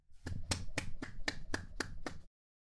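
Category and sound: human body sound, hand clapping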